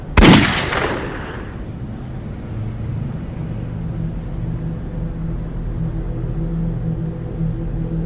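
A single loud revolver gunshot cracks at the start, its sharp blast trailing into a short echoing decay, followed by a steady low rumbling hum that continues to the end.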